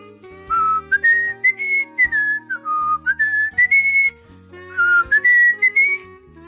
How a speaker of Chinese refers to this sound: 狼吹着口哨，继续向前走。